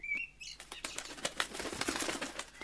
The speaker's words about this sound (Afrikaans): Maar die volgende oomblik gewaar die kraanvoel hom. Sy klap haar vlerke hard.